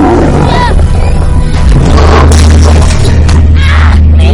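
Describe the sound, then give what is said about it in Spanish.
A lion, Charlie, roars and growls loudly over a heavy, rumbling crash and rattling thuds as it slams into a wire fence, with harsh noisy bursts throughout. “Charlie golpeó la alambrada.”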